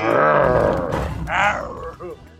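A Bengal tiger's deep, loud roar rumbles, trailing off before a second shorter, throaty bellow and a low grunt at the end.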